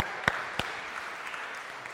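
An audience applauds in a steady, dense wash of clapping, with a couple of sharper individual claps standing out early on. The applause holds at an even, moderate level throughout, with no voices.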